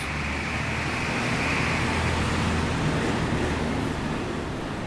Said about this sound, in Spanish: Ahí pasó un camión que tocó los 80 decibeles.